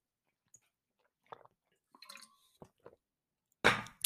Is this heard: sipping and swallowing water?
yes